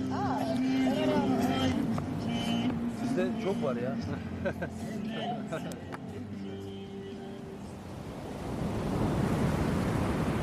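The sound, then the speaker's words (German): Wild surf rushes against the rough rocky Black Sea coast, a steady roaring wash under a person speaking, then swelling louder and alone in the final seconds, with wind noise buffeting the microphone. “Salzige Meeresluft, Wind in den Haaren, die Felsen der Küste sind rau, die Brandung ist wild.”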